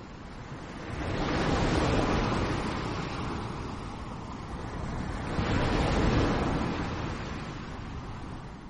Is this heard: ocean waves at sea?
yes